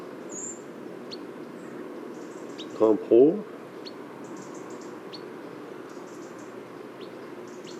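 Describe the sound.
European pied flycatcher calls in the Ramières reserve at the mouth of the Drôme river, within a mixed flock of small passerines: faint, short high 'pit' notes repeated at irregular intervals over a steady outdoor background, with a brief spoken word partway through.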